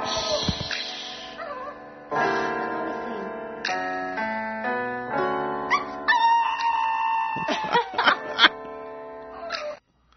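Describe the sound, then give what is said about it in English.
A dog named Leo howls loudly over a girl singing karaoke along to music, sitting with its owner on a couch; its long, wavering cries rise and fall for about ten seconds before everything cuts off abruptly. “a dog by the name of Leo, and the dog and its owner are sitting together on the couch and little Leo becomes the solo act because the girl, every time she goes to sing the karaoke, the dog just interrupts her and the dog takes over.”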